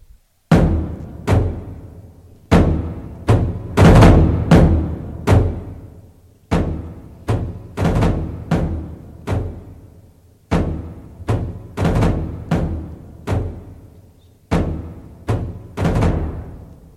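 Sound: drum being played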